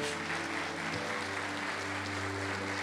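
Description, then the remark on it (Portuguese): A church audience applauds fellow members steadily, a dense wash of many hands clapping at an even loudness throughout, with a low sustained tone humming beneath it. “Vamos aplaudir a vida desses irmãos.”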